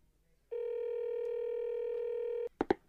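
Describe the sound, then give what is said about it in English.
A steady telephone tone hums for about two seconds as a call is made, then two quick keypad dialing beeps follow in rapid succession, clear with no voices. “It's about time we make that call.”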